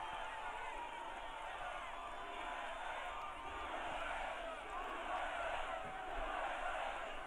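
A large crowd in Georgia, USA, chants "USA" together, a dense, steady roar of many voices holding at a fairly even loudness for several seconds with no single speaker standing out.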